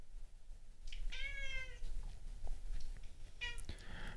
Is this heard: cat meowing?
yes